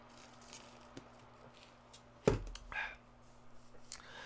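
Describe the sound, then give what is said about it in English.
A quiet sip of a drink: a sudden sharp clack, then a short soft slurp, followed by faint small swallowing and handling noises over a low steady hum, with no talking. “I gotta take a sip.”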